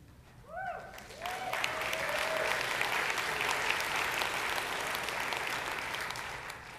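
A large audience breaks into applause that swells within a second and holds steady as a dense, continuous wash of clapping, with a few brief whistles or voices rising at the start.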